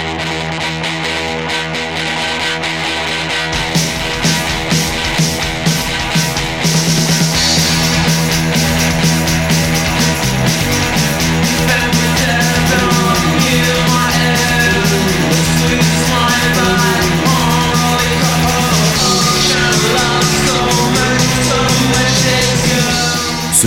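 A loud, abrasive rock track by a band from Angers with heavily distorted, driving guitars plays continuously, building after a quieter opening few seconds into a dense, raw wall of sound.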